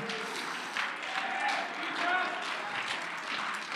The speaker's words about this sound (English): Oh, I wish you'd clap your hands and shout unto God a little bit.